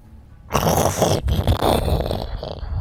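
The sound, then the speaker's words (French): A voice imitates stone grinding against stone, like a door opening, a harsh, raspy rumbling growl heard from the west that starts after a brief quiet moment and continues loudly and steadily, with one short break partway through. “Puis vous entendez un peu le rumbling, l'espèce de grondement, encore une fois, de pierre contre pierre, similaire à la porte”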